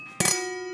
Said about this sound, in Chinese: 这个是红酒杯的声音，因为我们喝，我们现在喝的是那个 Burgundy，嗯，所以我们用的是比较开，就是那个口开的比较大的。 杯子， 杯子，因为这样子才可以让 Burgundy 的那个香气，那它很细致的香味散发出来